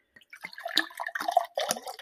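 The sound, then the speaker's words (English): Sherry is poured into a glass, a gurgling trickle with bubbly splashes that rises and surges in uneven bursts for about two seconds, with no voices. “we never start our show without a little bit of a little drink of sherry. So I'm going to pour my glass and I hope you're pouring yours too with me.”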